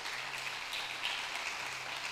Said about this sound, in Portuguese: Assim nós damos a honra, a glória, o louvor a Ti e fazemos isso com uma salva de palmas ao Teu nome, Jesus.